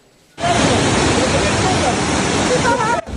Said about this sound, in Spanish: En Utuado, el río se desbordó y la fuerte corriente se llevó parte de la estructura de la carretera y también este puente de metal.